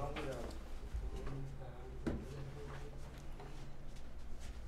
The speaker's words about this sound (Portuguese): Deixa eu ajudar a pegar a cadeira.